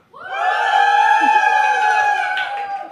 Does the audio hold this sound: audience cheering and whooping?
yes